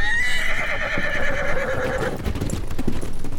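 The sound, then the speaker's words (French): A horse in a barn, being let loose, gives a loud, drawn-out whinny lasting about two seconds, with hooves clopping steadily underneath and continuing after the neigh fades. “Ah Monsieur, on va laisser les chevaux fuir!”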